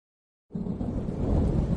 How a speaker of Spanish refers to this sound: Lluvia. Agua en estado líquido condensada del vapor de la atmósfera y precipitada en forma de millones de pequeñas gotas. La sientes en tu piel y la escuchas golpeando el suelo de forma continua, una a una.